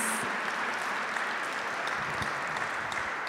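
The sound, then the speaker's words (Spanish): An audience applauds the King of Glory, King of Kings and Lord of Lords: a steady, dense wash of many hands clapping at an even, sustained level throughout, with no speech over it. “¿Cuántos le dan un aplauso al Rey de Gloria, al Rey de Reyes, al Señor de Señores?”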